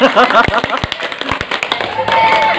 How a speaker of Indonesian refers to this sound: mantap tipsnya lu tepuk tangan ini kok gak banter